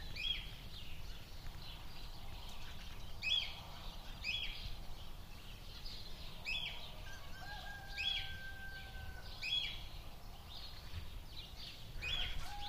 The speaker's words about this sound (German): Da, wieder die Vögel und der Wind. So, ich mache mal ganz auf kann hier ein bisschen Flasche wegschieben. So, jetzt. Da ist wieder, da sind wieder die Vögel.